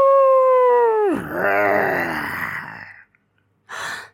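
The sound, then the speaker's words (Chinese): A person imitates the howl of the big bad wolf: a steady, high sustained note that suddenly drops, then trails into a long breathy, rasping exhale, followed by a pause and a short breath. “大野狼，赶快躲起来！”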